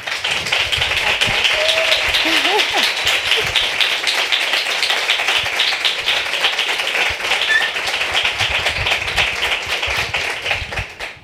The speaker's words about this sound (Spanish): Y es un público que ha venido a ver, a nuestra primera invitada, que es periodista, que trabaja en comunicación, que es una maravillosa fotógrafa y que recibe el primer aplauso de la noche rompiendo el frío madrileño.